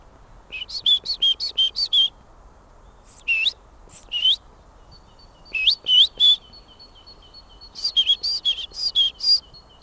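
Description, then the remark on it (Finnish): A person whistles an imitation of great tit song: several bursts of high, bright two-note phrases repeated rhythmically, with short pauses between the bursts, clear over a faint low background. “No jos sinulta pyydetään talitiaista, niin matkit perinteistä titityytä maalaistiaista vai meneekö kaupunkitinttinä lyhyemmällä kaavalla?”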